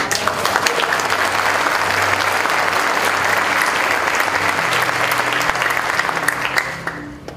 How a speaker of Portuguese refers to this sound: Dê um aplauso aí.